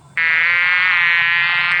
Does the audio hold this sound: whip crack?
no